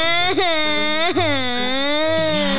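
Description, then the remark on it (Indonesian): A child wails loudly and continuously, the long drawn-out cry broken by two brief catching sobs before trailing into another sustained whine. “Tangisan ini didengar oleh tetangga di samping kiri dan kanan rumah itu.”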